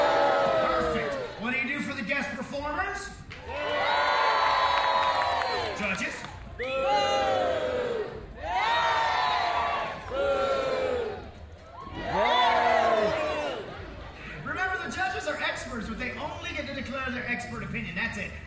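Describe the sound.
A large theme park audience in Florida boos loudly at a singer's performance in several long, swelling waves, each rising and fading, with an announcer's voice speaking in the brief gaps between.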